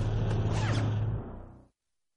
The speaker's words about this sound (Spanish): Todd vuelve mientras se pone un mono amarillo. A Todd se sube la cremallera.